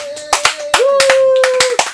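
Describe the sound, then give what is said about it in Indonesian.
Scattered applause from a small group welcoming a guest on a show, sharp uneven claps over two seconds, loud, with a steady tonal hum sustained underneath. “Tepuk tangan.”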